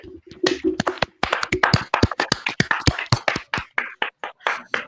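A few people applaud, their hand claps coming fast and irregular in sharp, crisp bursts that stay fairly loud for about five seconds before thinning slightly at the end.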